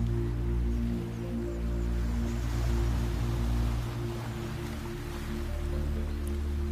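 Ocean waves wash in a soft, continuous hiss with a gentle swell rising and easing over a few seconds, set over a low steady drone with no voices.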